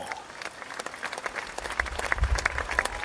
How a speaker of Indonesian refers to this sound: Sorak yang kalian dengarkan bukanlah apresiasi betapa romantisnya kita saat berduaan,